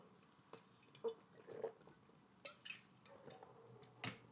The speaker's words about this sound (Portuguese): Espera aí, pausa para a água.